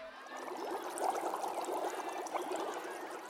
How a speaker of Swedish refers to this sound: Och bredvid henne i en kittel bubblade en häxbrygd så det fräste.